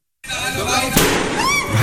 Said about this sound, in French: Des, des explosions, hein, des, des, flammes et cette mhm. immense fumée noire dans de nombreuses vidéos euh, partagées sur le brasier au parc euh, d'attractions allemand Europa Park, hein, tout près de la frontière française.